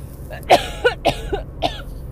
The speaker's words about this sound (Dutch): ik moet even hoesten. Zo, dat krijg je als je net een nootje hebt gegeten. Nog een keer.